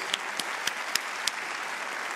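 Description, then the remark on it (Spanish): A church audience applauding together to welcome visitors at a service on the first day of Holy Week, a steady wash of many hands clapping with a few sharper claps popping out now and then. No one speaks over it. “Dale un aplauso a todos allá también.”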